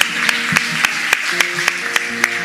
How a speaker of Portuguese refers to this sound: Aleluia. Aplauda mais ainda, querido.